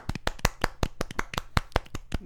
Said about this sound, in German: Also Applaus an äh, die Konsumenten.